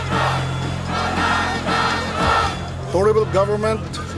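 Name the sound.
crowd of street protesters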